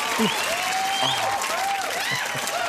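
Steady, dense applause from a sizable audience fills the whole stretch, with faint voices and a few whoops rising over the clapping.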